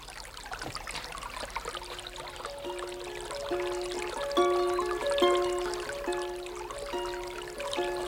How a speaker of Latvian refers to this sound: Vai avotā ūdens vienā tā tek? Nu, zināms, dienu un nakti, ziemu un vasaru, tikai vasarā ūdens augsts, bet ziema silts.